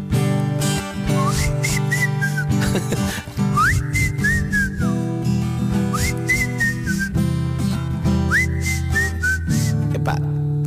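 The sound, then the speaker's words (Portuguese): Someone whistles a bright melody in four repeating phrases over a full, steady instrumental backing with a beat, and a short laugh breaks in partway through. “Tudo bem, vamos assobiar.”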